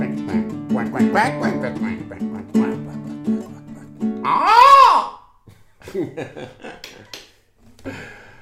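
A loud, nasal duck quack bursts out midway through a playful, tonal melody of a duck song, followed by a few softer, scattered squawks as the song continues.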